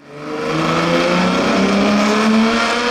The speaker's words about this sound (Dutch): Ik weet nog dat hij een eh, zo'n Ferrari. We kunnen wel even laten horen. Dus even een Ferrari 250 Tour de France.